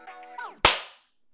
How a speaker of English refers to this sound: All right, checking the levels here. Okay, ready for the clap? Three. Uh, well, not ready. Three, two, one.